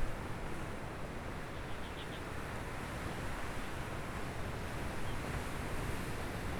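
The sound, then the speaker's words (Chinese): Ocean waves at ebb tide at a spot often used for surfing wash in a continuous, even roar of surf with no distinct crashes, a steady moderate hiss and rumble that never builds or breaks sharply; the waves are not very rough and the sound keeps receding. No one speaks. “其实今天的海浪不算太凶，然后这个海浪啊，其实是在退潮。”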